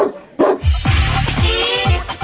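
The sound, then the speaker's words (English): A dog barks several times in quick succession, loud, with short yappy barks spaced about half a second apart over a faint background bed, at a dog's birthday party. “He'll always be my little puppy.”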